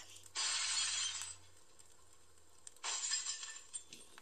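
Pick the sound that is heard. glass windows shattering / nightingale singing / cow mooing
glass windows shattering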